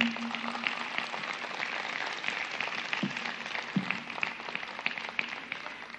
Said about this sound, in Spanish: Dale un aplauso al Señor.